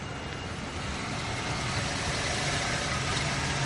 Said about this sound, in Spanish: Un coche se acerca.